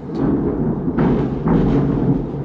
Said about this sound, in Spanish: Pues sí, cayó un trueno.